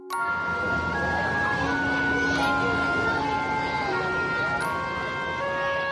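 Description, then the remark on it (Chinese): Busy street traffic fills the scene with a steady, dense rumble, while a siren's long sustained tones wail over the top; a few sharp bursts cut through and murmuring voices mingle in the noise. “车流，喧闹，”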